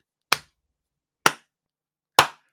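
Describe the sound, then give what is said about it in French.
A single person claps three times, slowly and evenly spaced, each clap sharp with a quick decay, with silence in between and no voices. “j'applaudis un tantinet pour dire Christy, une opportunité”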